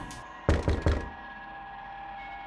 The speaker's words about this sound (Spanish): Me incorporé en la cama y traté de identificar el ruido que me había despertado. Parecía como si hubieran llamado a la puerta.